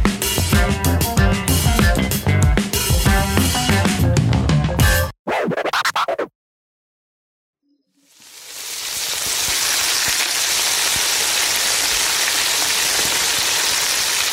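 Cheese pastries frying in hot oil, a steady, dense crackling sizzle that rises in and holds after a burst of music and a brief silence. No one speaks.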